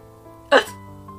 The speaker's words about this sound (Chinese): 斑马坐下来，喝了几口。忍不住咳了起来，还结结巴巴地说话：“ 又不小心被呛到，最后还是打嗝。